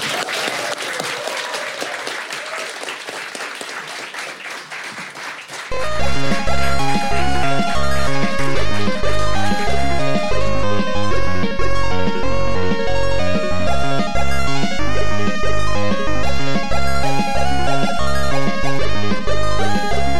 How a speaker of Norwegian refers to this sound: Så vet du, hva, da gjør jeg ikke annet enn å be dere gi en varm applaus til Retrotimen!